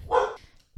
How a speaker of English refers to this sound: Sorry about my doggy barking in the background. I record this podcast, as you know, with a cat in my lap, and there's dogs in my house. So if they bark, I just go with it